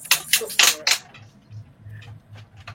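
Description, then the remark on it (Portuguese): A quick series of four or five sharp plastic clicks from the ratcheting joint of a large transforming toy figure with big pieces being transformed, followed by a quieter stretch with faint low murmuring in the background. “Parece que vai quebrar, dá um medo é, o, o, barulho da catraca dessa coisa.”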